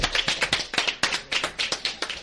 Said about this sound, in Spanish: Menos aplauso y más cheque.